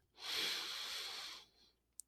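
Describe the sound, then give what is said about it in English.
A long, steady inhaled breath lasting over a second, airy and tapering off, followed by a faint click; a person breathing in for a count of five to calm down. “Anyone, if you're just listening right now, breathe in with me.”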